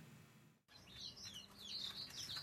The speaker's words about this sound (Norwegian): På en liten gård i Atterå i Tinn flakser nesten 100 fargesprakende fugler i alle regnbuens farger.